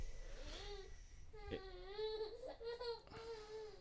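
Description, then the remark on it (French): A baby cries in drawn-out, wavering wails that keep going with only brief catches of breath, not very loud, with no one talking over it. “Bah, la seule fois où il pleure, c'est quand on enregistre.”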